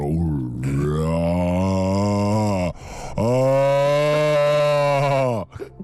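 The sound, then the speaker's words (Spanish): A person voices a long, strained, harmonic bray, two drawn-out bursts separated by a short breath, imitating something between a donkey and a revving motorbike, loud. “Es para, es para asustar. Parecía entre un burro, una, una moto pasar revoluciones.”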